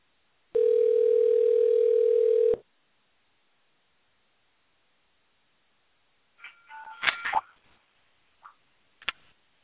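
A steady, loud cell phone dial tone sounds for about two seconds, then stops; after a pause come a few short clicks and faint handling noises of the phone, as the caller tries to get someone on the line.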